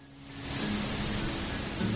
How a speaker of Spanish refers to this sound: sonido tan relajante, eres del viento azotando o meciendo las hojas de los árboles.